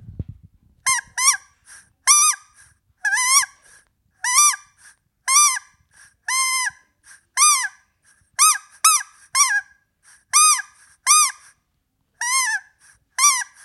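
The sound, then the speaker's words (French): A common moorhen calls repeatedly, a run of about twenty loud, harsh, nasal squeaks with a honking edge, coming in quick pairs and bursts with short gaps between them. No voices are heard. “Et alors le deuxième, c'était La poule d'eau.”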